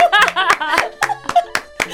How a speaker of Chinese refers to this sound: 不好意思，这个掌声要久一点。